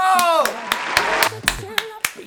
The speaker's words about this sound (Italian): Ma che bravo, ma che bravo, un applauso!